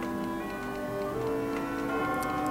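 A clock ticks at a steady, regular pace, the light clicks sitting under sustained, held musical tones. No one speaks.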